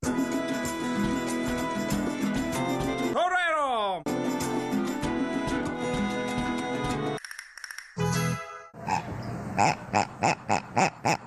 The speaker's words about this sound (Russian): В этом автомате можно вытащить хрюкающую свинью.